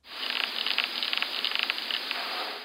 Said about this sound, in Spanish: Y yo les traje los sonidos. Entonces, por ejemplo, este es el sonido de una larva abejorro de bosque.